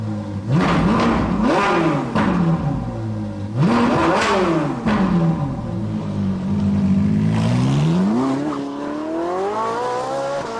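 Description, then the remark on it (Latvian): A car with light leather seats revs up loudly and pulls away, heading for town, its engine pitch climbing in several rising sweeps as it shifts gears, then settling into a steady hum as it keeps driving. No voices. “Šoferis uzvilka kādas cimdas, un mēs devāmies uz pilsētu.”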